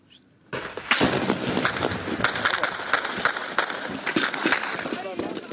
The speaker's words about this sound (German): Aufständische eröffnen das Feuer mit Gewehren und Panzerfäusten. Sie haben sich in Gehöften an einem Ortsrand verschanzt. Die Soldaten schießen sofort zurück.